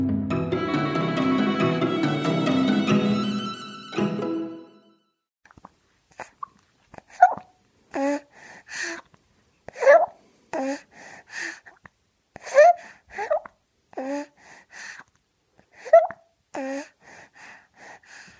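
After a few seconds of music, a baby makes soft, wet suckling smacks while breastfeeding from its mother, with small gulps and breaths repeating every second or so, quiet.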